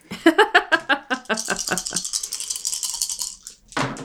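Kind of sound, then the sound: household object, dice being rolled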